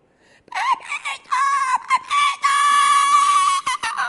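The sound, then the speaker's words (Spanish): A voice imitates a woman's frantic screaming: a run of loud, high-pitched wailing cries, the longest held steadily near the end, intense with brief breaks between shrieks. “empezó mi tía Paqui a pegar gritos”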